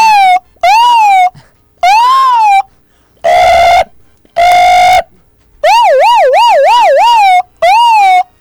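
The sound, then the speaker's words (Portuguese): A man imitates a series of emergency sirens with his voice: rising-and-falling wails, two flat buzzy tones, then a rapid warbling yelp, each burst loud and separated by brief pauses. “Todas as sirenes possíveis que tem dentro de ti aí, por favor”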